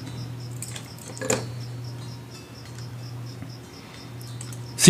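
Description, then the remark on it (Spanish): A cricket chirps steadily in short, evenly spaced pulses, fairly faint against a low background hum, with a brief rustle partway through and a sharper noise at the very end. “El grillo sí se oye.”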